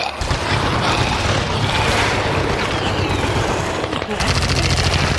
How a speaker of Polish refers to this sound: I w tym momencie rozległa się istna kakofonia strzałów, której zaczęły towarzyszyć okropne krzyki zepsutych.